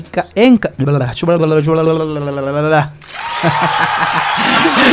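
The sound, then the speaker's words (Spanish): A voice sings out in drawn, melodic tones, then a loud applause sound effect erupts and keeps going, steady crackling clapping with a voice still carrying underneath. “Saqué aplausos, me enredé.”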